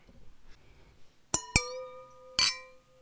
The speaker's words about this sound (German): Aber bevor wir jetzt nun richtig ins Thema einsteigen, möchte ich die Gelegenheit nutzen und mit euch anzustoßen auf Urlaub und auf Sommer.